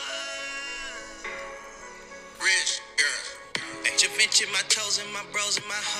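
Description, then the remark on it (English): An auto-tuned rap song plays through a tinny phone speaker, with a warbling, pitch-corrected vocal over a steady backing that grows brighter and more clipped midway. “I need I need I need y'all to hear the song.”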